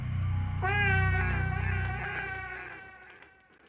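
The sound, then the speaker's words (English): A single soft, drawn-out cat meow rises over a low steady hum, then trails off and fades to near silence. “The cat sits down and lets out a quiet meow, then swiftly vanishes into thin air.”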